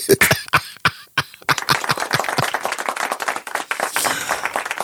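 One person clapping: a few loud, separate claps at first, then quicker, steadier clapping that keeps going for several seconds, with no talking over it.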